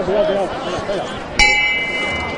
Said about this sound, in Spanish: Bueno, pues llaman la campana de Nuestra Señora de las Angustias.